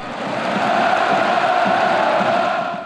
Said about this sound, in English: He's now playing for one of the most revered clubs in Europe, Dortmund. 80,000 German fans scream your name, you better deliver.